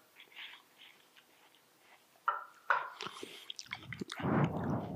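Someone sitting chews watermelon: faint smacking at first, then louder, wet, squishy crunches and slurps that come irregularly and build toward the end. No one speaks.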